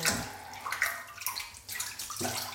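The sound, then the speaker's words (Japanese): Bath water sloshing and splashing in a tub as someone bathes, fairly loud, with irregular bursts of movement and trickling throughout; no voices. “お水の音とか”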